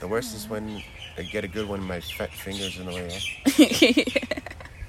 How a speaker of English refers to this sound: what bird is that? I don't know. Why are you asking me? it's black. Has a black mohawk